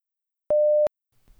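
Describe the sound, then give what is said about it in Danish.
A single steady electronic beep tone, clear, holding one pitch for about a third of a second, followed by silence and then faint low rustling: the tone of a Zoom call dropping out on mobile data. “kære lytter, jeg er desværre lige blevet kottet ud fra Zoom af.”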